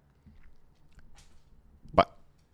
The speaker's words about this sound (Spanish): Mi perro se estaba comiendo una hoja adentro de mi casa. Él trae las hojas para adentro y después las esconde y después se las quiere comer.